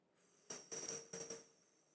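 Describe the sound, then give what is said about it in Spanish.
A breathy exhale pushed out through the mouth in several short airy puffs over about a second, as if blowing up a small balloon, during a breathing exercise, with no talking around it. “pueden exhalar por la boca si les queda más fácil. Entonces exhalas así,”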